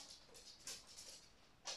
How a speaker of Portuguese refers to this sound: Vou abrir só a porta ali ao dogzinho. Um momento para apreciar as patas do cão a caminhar.